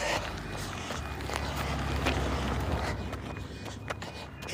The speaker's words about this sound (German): Und das Auto.